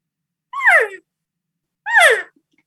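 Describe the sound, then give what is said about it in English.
Two mewing, descending cow elk calls made on a call, imitating an older cow with a lower tone, each about half a second long and separated by a pause, fairly loud with no talking. “So if I want to sound like an older cow,”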